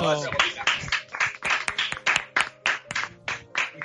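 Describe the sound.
Applause for a guest who is a healthcare worker: steady, fairly rhythmic clapping, roughly three or four claps per second, with murmuring voices and cheers faintly mixed underneath.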